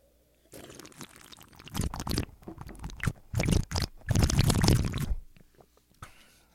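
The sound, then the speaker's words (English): Leftover coffee is poured into a cup, followed by a few loud sips and swallows in uneven bursts, then a quiet tail; no one speaks. “I'll take a drink of water. Oh, wait a second. I do. Have, I still have some coffee left from my.”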